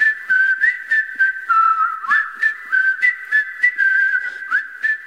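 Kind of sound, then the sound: sound effect, whistling melody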